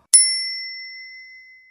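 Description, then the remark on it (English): A single bright strike of a tabletop game bell, rung in a fruit card game when five of the same fruits appear, ringing out clear before its metallic tone slowly fades away. “You know, you basically put a card with different numbers of fruits are on, and when there are five of the same fruits, you ring the bell. I especially like the sound of the bell.”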